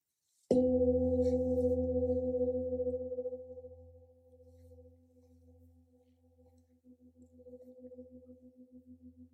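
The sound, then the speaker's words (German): A single gong strike, the second of three in a guided ritual, rings out with a sharp attack, then a long, sustained hum of steady low tones that slowly fade and shimmer with a pulsing, wavering resonance. “Mit dem zweiten Gong strahle ich dies in die Welt.”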